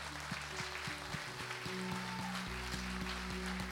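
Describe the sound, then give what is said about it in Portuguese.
An audience claps hands for Jesus in a steady, rhythmic beat, the crowd's applause dense and continuous over sustained low musical tones, with no voices standing out. “Então vamos bater palmas para Jesus.”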